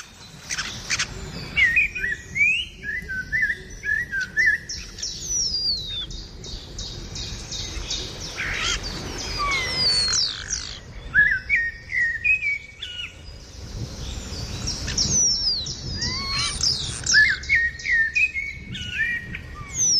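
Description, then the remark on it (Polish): A small bird that stays all year round sings bright, trilling phrases in repeated bursts over a constant rushing background of wind and rain. No one speaks. “Występuje u nas cały rok i tak nam pięknie śpiewa.”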